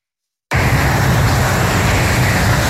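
Loud, continuous traffic noise from the A47 motorway in Rive-de-Gier in the Loire starts abruptly after a moment of silence, a dense roar of passing vehicles 20 metres from residents' windows, reaching up to 95 decibels, with no voices.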